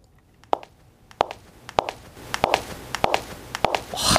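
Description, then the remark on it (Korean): A woman's high-heeled shoes clicking across a hard floor, about seven or eight sharp, evenly spaced steps at a steady walking pace, approaching from a distance, clear with no one speaking. “또각또각 구두소리입니다. 여자의 구두소리 같죠?”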